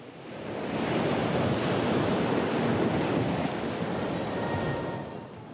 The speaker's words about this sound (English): It's one of those rare places where Lebanon's religious sects, ethnic groups, and social classes converged to get out from under the weight of the city and to watch the waves crash against the rock.